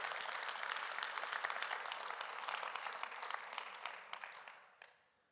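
Audience applause, a steady wash of many hands clapping with dense overlapping claps that holds for several seconds, then thins out and fades as the clapping dies away.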